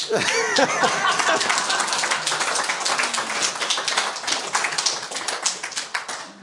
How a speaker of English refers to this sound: Amen. I guess we ought to just clap